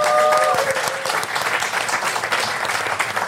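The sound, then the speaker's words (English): An audience claps steadily to welcome Councillor Clyde Loakes, the borough's deputy leader, a dense wash of applause that stays loud and even throughout, with a brief tonal hum at the very start. “Round of applause.”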